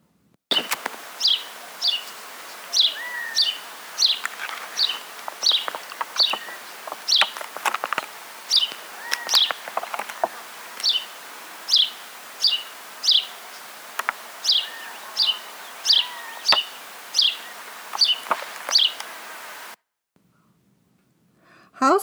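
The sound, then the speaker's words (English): A house sparrow's chattery song: bright, repeated chirps at a steady, lively pace, clear, carrying on for about twenty seconds before stopping abruptly. “When you are out in your backyard or out and about in just about any urban or suburban setting, you will hear the chattery song of the house sparrow.”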